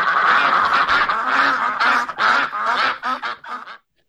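A duck quacking sound effect: loud, rapid quacks, a dense run of harsh, nasal calls tumbling over one another for about four seconds before stopping abruptly.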